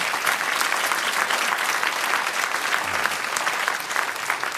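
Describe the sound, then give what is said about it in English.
An audience claps their hands together, a steady dense patter of many overlapping claps that stays loud and even throughout without a clear beat, no voices rising above it. “Come on, put your Bible down, clap your hands for more.”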